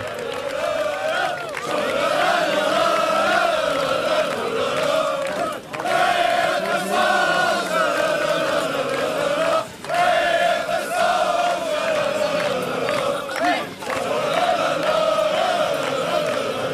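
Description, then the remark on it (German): A large crowd of Fortuna football fans in the fan stand chants a loud, sustained battle cry in unison at the end of a match their team lost, voices rising and falling in rhythmic waves with brief dips between phrases, no single speaker standing out. “wie die Fankurve nachher am Ende des Spiels regiert hat. Das hört sich überhaupt gar nicht an wie eine Niederlage”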